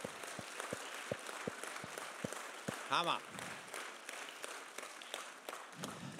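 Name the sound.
audience applause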